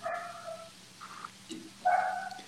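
animal, small dog barking

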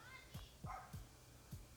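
animal, dog barking

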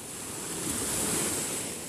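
nature, ocean surf waves

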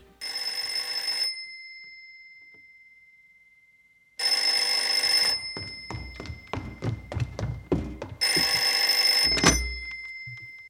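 household object, telephone ringing

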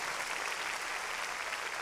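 crowd, applause

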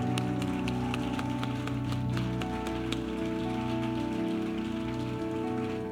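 crowd, audience applauding

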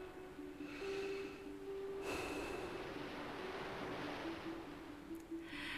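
nature, gentle sea waves lapping

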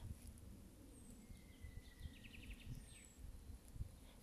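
bird, birds singing

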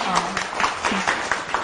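crowd, audience applause

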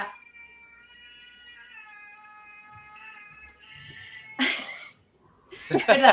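animal, cat meowing

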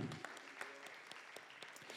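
crowd, audience clapping

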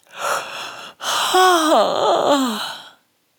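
human body sound, yawning

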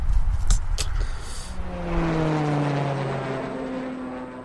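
vehicle, airplane engine

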